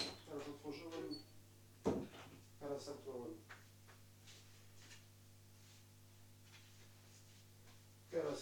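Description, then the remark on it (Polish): A door shuts with a sharp knock early on, then after a long pause it clatters open again; muffled talking precedes the first sound over a steady low hum. “Teraz zamknę i otworzę drzwi.”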